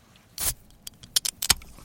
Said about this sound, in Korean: 자, 오늘 금요일이니까요. 이 소리를 보물소리로 정합니다. 뭔지 아시죠? 네, 예, 맥주 캔 따는 소리예요. 자, 금요일 보물소리, 맥주 캔 따는 소리. 다시 한번 들려드립니다.